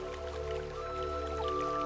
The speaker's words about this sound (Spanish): Observo cómo la fuente comienza a crecer, se ve cada vez más grande y la intensidad con la que el agua corre empieza a ser cada vez mayor.